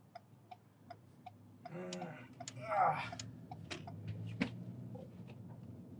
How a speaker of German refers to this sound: Ja, was man hört, ist halt der Blinker, aber, aber gleich wird nicht mehr geblinkt.